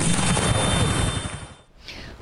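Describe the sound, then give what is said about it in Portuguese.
A loud, steady roar of a helicopter passing overhead as moral-effect bombs are dropped from it to clear a highway and disperse protesters, its dense rumble filling the air before abruptly dropping away to a faint whine. “Bombas de efeito moral foram atiradas de um helicóptero para liberar a rodovia e dispersar as pessoas.”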